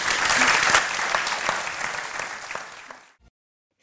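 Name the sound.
audience applause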